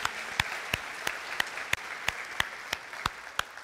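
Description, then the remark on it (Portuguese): A church audience applauds the word of the Lord after a Bible reading, steadily, a dense wash of clapping with sharp, evenly spaced claps standing out about three times per second. No one speaks over it. “Você pode dar um aplauso à palavra do Senhor?”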